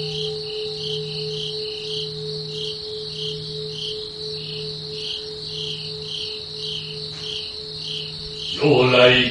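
Insects chirp steadily in rapid, evenly repeating high-pitched pulses, over a low sustained hum that swells in slow waves, with a brief burst of louder rustling at the very end.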